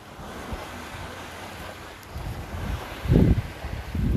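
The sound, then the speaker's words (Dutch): Waves washing against the shore, with gusty wind buffeting the microphone and low rumbling surges that grow stronger toward the end. “Ik loop even een beetje weg van het water.”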